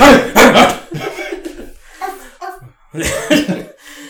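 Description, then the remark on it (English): An excited dog wagging its tail lets out short, loud bursts of barking, a cluster at the start and another near the end, with quieter rustling noise in between. “we got a dog around. He's wagging his tail in front of you right now”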